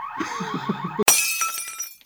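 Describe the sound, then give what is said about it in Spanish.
A steady, high-pitched electronic alarm tone sounds throughout during an attempted robbery, cut across midway by a sudden loud, harsh burst like something shattering. Low thumping pulses sit underneath early on, and no one speaks. “Ya después de ese alarma, ese intento de robo.”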